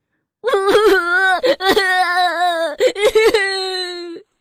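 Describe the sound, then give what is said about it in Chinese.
A voice imitates the story character Peter, a rabbit stuck in a net bag, crying: a few short, choked sobbing bursts, then long, wavering, high-pitched wails that rise and fall, loud and with no other sounds. “彼得的哭声引来了小麻雀”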